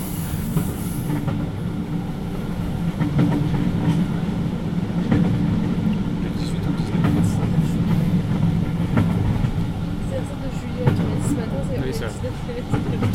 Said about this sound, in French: Oui, donc on est le 19 juin. Et on est dans le train pour euh, entre Bled et Ljubljana. On est dans un compartiment